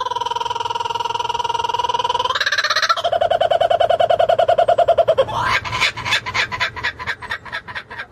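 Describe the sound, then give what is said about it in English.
A loud bird-call sound effect plays alone: a sustained whistling tone turns into a rapid warbling trill, then breaks into a run of quick rising chirps that gradually slow. “Smack the bird, and let's get into it.”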